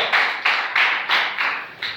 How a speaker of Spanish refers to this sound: Denle aplauso al Señor fuerte esta noche. Aleluya.